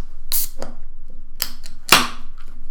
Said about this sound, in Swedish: han tänkte öppna denna podd med att öppna en öl.